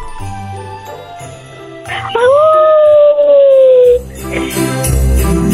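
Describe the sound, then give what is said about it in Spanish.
A voice imitates a wolf howl on request: one loud, sustained wail that slides upward and then holds, fading slightly over about two seconds, with a background murmur before and after. “¿Puedes hacer el ruido de un lobo?”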